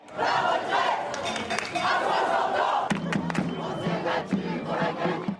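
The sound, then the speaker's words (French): A large protest crowd in France chants and shouts slogans in a loud, sustained roar of many voices, with sharp bangs and thumps breaking through in the second half. “Les mêmes slogans ont ainsi retenti de Bordeaux”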